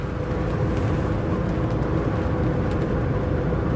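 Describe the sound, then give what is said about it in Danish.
Steady, loud road rumble of a large motorhome cruising at highway speed on a Danish motorway toward Horsens in strong crosswind, a dense low-frequency drone with wind and tyre noise that holds constant throughout, no voices. “Så er det på motorvejen”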